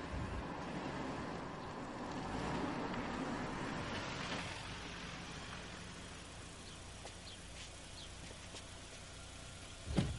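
A car engine rumbles as the car approaches a police station, swelling in loudness, then settles into a steady low idle as it stops in front of the door, with a brief sharp knock at the very end.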